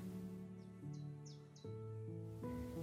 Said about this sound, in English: And we are so very lucky that we live in the middle of beautiful and quiet countryside, surrounded mostly by birdsong and the leaves rustling in the wind.